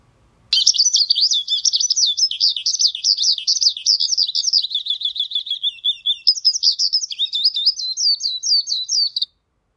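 skylark song

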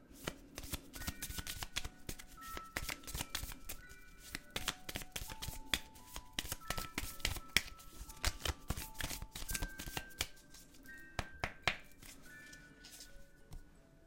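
shuffling oracle cards

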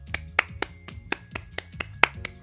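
hand clapping

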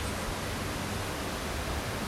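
flowing river water

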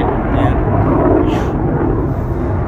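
military aircraft flying overhead

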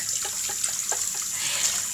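tap water running

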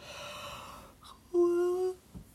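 yawn

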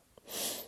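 human sneeze

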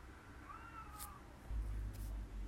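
cat meowing

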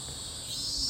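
cicadas chirping loudly

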